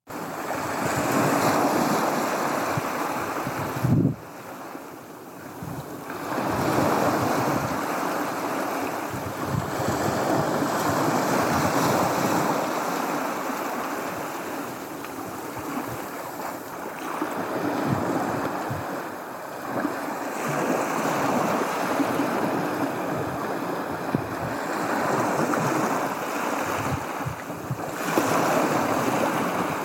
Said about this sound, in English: Thank you, Tim. Brilliant. That's lovely. Very evocative sounds of waves. That's in Dorset, on the Dorset coast, I think.